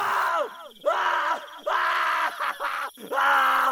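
A man screams in pain, letting out five or six loud, strained, wavering cries in quick succession with brief gasping breaks, close by and with no other sound around them.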